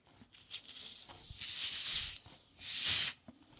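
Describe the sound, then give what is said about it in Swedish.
Fizzing fruit soda is poured into a drink with a bright, hissing rush that swells and fades, then returns in a stronger burst before stopping. No one speaks. “Nu, eftersom att det är halloween, så tänkte jag piffa den med lite fruktsoda.”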